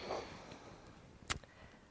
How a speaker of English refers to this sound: And uh, yeah, you'll have to excuse the sniffles. This is part of life, isn't it?